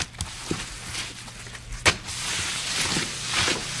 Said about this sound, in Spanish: Fregar el suelo. Correcto, es una oh, mopa fregando el suelo.